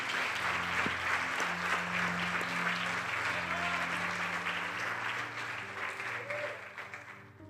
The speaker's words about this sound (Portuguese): Se você acredita que esta palavra no Gênesis, capítulo 26, de alguma maneira vai mexer com você e falar com você, use as suas mãos para aplaudir ao Cordeiro de Deus. Ele é digno.